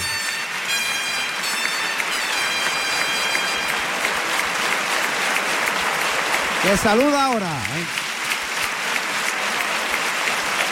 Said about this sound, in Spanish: Se la ha jugado total. Ha dejado venir. Pedazo de ovación para Bioti.